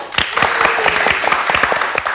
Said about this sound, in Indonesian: Ya, oke terima kasih sekali lagi …. Semoga sukses selalu …. Sekali lagi tepuk tangan buat ….